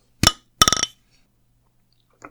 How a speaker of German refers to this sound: Ja, also ich kann leider nicht laut anstoßen, weil ich ja nur so eine olle Dose habe, aber wollen wir mal anstoßen? ja, dann wollen wir mal anstoßen.